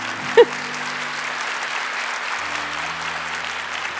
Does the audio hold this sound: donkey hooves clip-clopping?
no